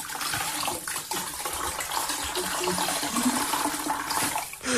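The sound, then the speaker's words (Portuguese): A mop being wrung out, with water gushing and splashing steadily for several seconds, swelling into a louder rush at the end. No one speaks. “Eu uh, tenho quase a certeza que é uma esfregona a ser espremida.”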